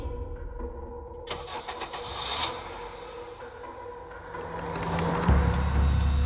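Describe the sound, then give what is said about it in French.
A car engine cranks and starts, then settles into a steady idle rumble, with a deeper surge near the end. No one speaks. “Ensuite, les deux femmes partent en repérage dans la voiture”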